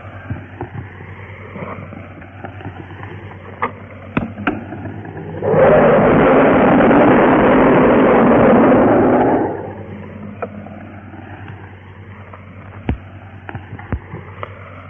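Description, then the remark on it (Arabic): A single iftar cannon blast bursts out loud and broad, its roar holding for about four seconds before cutting off, over a steady low hum with scattered faint clicks and no talking. “أيها السادة إلى مدفع الإفطار”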